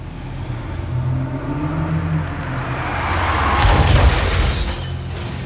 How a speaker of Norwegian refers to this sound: Den svarte Saben suser mot Torshov. Sjåføren trykker enda litt hardere på gasspedalen.